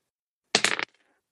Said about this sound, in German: Bitte nochmals würfeln.